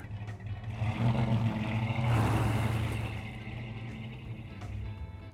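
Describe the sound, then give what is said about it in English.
A truck loaded with chains drives up into the Sierra Nevada mountains toward Yosemite National Park in bitter cold winter weather; its engine drones steadily, the low rumble swelling louder for a moment mid-way with a rush of road noise, then easing back to a continuous hum. “Like most photographers, we watch the weather, and when it does turn bitter cold up in the nearby Sierra Nevada mountains, we load up the chains in the truck and head up to beautiful Yosemite National Park.”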